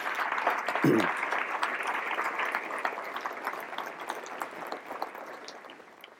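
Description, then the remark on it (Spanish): An audience breaks into sustained applause for participants and a foundation, a dense wash of many hands clapping that stays steady for several seconds before gradually thinning out toward the end. “Así que quiero pediros aquí ahora mismo un aplauso para todos esos participantes y para la Fundación por canalizarlos.”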